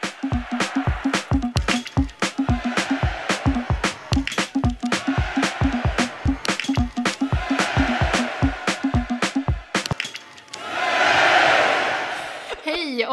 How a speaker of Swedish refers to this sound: Nu kör vi. Ja, verkligen. Här kommer nu vignetten.